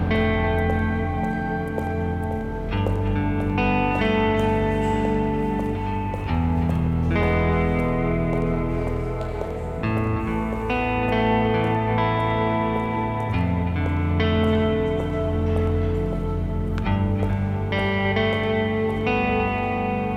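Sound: bees buzzing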